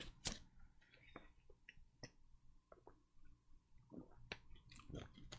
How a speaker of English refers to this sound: hold on i gotta get a drink of water